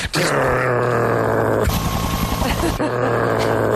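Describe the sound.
A man imitates a stag beetle's buzzing flight with his voice, a loud, continuous droning hum that roughens into a rattling growl midway, then settles back into a steady buzz.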